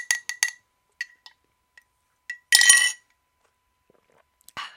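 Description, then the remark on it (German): Bright glassy clinks of a straw tapping against a water glass, several quick taps in irregular bursts, crisp, with one longer rattling clatter midway and quiet gaps between. Made for an ASMR recording. “Heute habe ich ein Wasserglas mit einem Strohhalm.”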